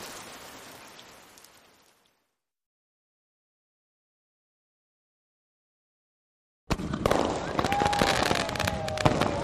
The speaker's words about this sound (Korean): 소리가 멋지다. 신랑 신부를 축하하기 위해 여기 길가에서 폭죽을 터뜨리고 불꽃놀이를 한다.